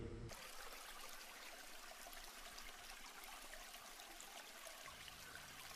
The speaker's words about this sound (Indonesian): meratapi air mengalir begitu lembut, mendamaikan hati yang sedang panas-panasnya.